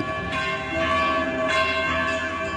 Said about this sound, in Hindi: कि तभी अचानक आदर्श को कुछ सुनाई दिया ये आवाज मंदिर में बजने वाली घंटियों की थी